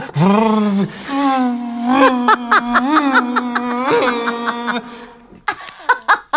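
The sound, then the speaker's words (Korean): A person imitates a vacuum cleaner while acting out cleaning a bathhouse, with a long, steady, droning vocal hum that wavers in pitch for several seconds, then breaks into short choppy bursts at the end. “아 오늘 진공 청소기부터 시작해가지고 한번 되줘요.”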